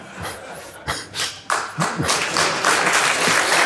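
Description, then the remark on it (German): An audience breaks into applause, scattered claps at first that quickly swell into a steady, dense wash of clapping, growing louder and fuller toward the end with no speech. “Also ich würde sagen, äh, der Applaus.”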